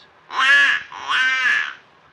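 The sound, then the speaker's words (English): A human voice, using a duck call held to the mouth, imitates a female mallard's mating call: two loud, nasal, quacking honks with a raspy buzzing tone, the second slightly longer, with a short pause between them. “send forth the plaintive mating call of a lady mallard, like this.”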